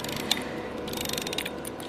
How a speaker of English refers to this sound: And then there is a key, um, which we use and then we turn this until the drum gets quite tight and the key is to wind up the clock mechanism which takes for seven days